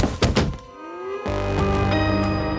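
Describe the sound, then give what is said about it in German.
A milkshake glass is struck with full force over a woman's head in a quick burst of two or three heavy, dull thunks, with no talking. A steady, droning musical chord then swells in and holds. “Ich schlage der Frau mit aller Kraft das Milchshake-Glas über den Kopf.”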